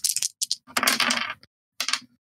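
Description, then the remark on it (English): Three dice rattle and clatter across a hard surface in quick bursts of sharp, bright clicks, with a longer tumbling roll in the middle and a final brief skitter as they settle, coming up six, six and four. “So this is going to be three dice, y'all guys.”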